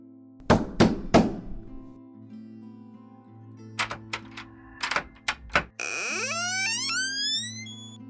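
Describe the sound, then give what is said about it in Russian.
Three heavy, pounding knocks on a door in quick succession, a pause, then another burst of loud knocks, followed by a rising, warbling tone over a steady low hum. No one speaks. “Постучавший в дверь, как в боксерский мешок”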